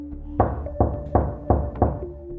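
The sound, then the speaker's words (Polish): Five firm knocks on a wooden door at the top of stone steps on a midsummer evening, evenly spaced in a steady rhythm, clear with a low resonant thud and no voices. “Chwilę rozglądałem się za dzwonkiem, którego ostatecznie nie znalazłem, więc zapukałem do drzwi.”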